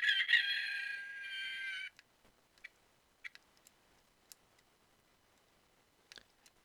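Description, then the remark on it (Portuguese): A small rooster crows once, a loud, harmonic call lasting about two seconds, followed by quiet with a few faint clicks and ticks. “Vamos, vamos relembrar aqui o canto do galinha, que bonitinho.”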